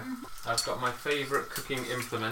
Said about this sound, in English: that sizzle is when the uncooked parmesan is hitting the pan and the hot oil, and that's a bit of spitting